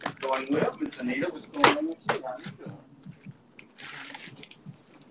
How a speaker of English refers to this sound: no, it's just a, that just was a bag of beans. oh. That's all. Sorry for the noise.